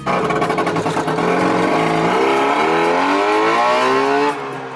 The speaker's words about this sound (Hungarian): Persze ez nem egy igazi műhold volt, hanem egy műhold nevű autónak nevezett műanyag jármű, vagyis egy Trabant.